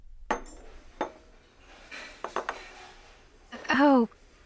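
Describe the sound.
Scattered clinks of dishes and cutlery ring out in a restaurant, a few sharp taps spread across the moment, followed by a brief burst of a voice near the end.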